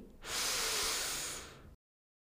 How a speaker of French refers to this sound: Inspirez profondément pour vous dynamiser.